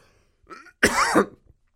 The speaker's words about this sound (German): Kriege ich schon gleich trockenen Husten, wenn ich mich so drüber aufrege, merkt ihr?